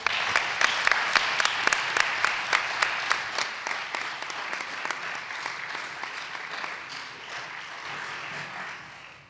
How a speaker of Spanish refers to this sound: Así que un fuertísimo aplauso para ellas.